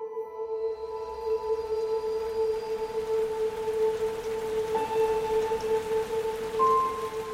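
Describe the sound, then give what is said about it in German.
Heavy rain pours down in Rhineland-Palatinate, Germany, on the evening of Wednesday, 14 July 2021, after days of rain, a dense, continuous hiss that holds steady throughout, with a low steady hum running underneath and no voices. “Wir befinden uns am Abend des 14. Juli, einem Mittwoch, und es regnet in Strömen.”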